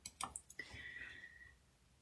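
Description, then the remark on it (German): A knitted wool piece is laid on top of a water surface: a few soft wet clicks and squishes, then a faint watery trickle that fades out. Quiet, with no talking. “Und dann gehe ich hin und lege mein Strickstück einfach oben auf die Wasseroberfläche drauf.”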